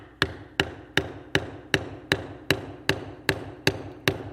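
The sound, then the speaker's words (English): A steady series of about eleven sharp, ringing hammer blows, evenly spaced, driving something in with a firm, regular rhythm and no talking. “Hold the hammer down there a little bit more.”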